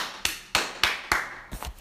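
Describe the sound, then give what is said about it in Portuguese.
Four crisp hand claps at a steady, unhurried pace, followed by a couple of quieter, softer claps at the end. No voices. “Também podemos emitir outros sons, como palmas.”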